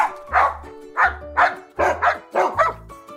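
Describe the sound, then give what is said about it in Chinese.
Dogs living at an animal shelter bark in quick, repeated bursts, about seven sharp mid-pitched woofs, some coming in pairs, loud and steady with no talking. “其他住在收容所里的小狗都非常活泼，也很爱讲话”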